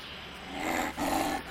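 A wolf calls with a drawn-out, moaning howl that breaks briefly in the middle before carrying on, fairly loud, with no one talking.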